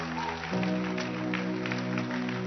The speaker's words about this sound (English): If you've not experienced church this way, this is church. I want you to clap your hands for Jesus